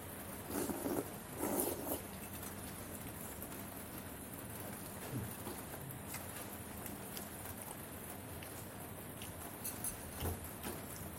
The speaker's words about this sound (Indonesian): 2 Februari hari Sabtu 2019 Rancakek diguyur hujan